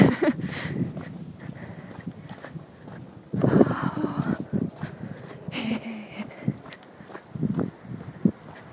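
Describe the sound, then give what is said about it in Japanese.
Outdoor ambience recorded while walking home, with a steady background hiss and a series of scuffing footsteps at an uneven walking pace. A brief vocal murmur is heard once. “そう外で帰り道に録音してます”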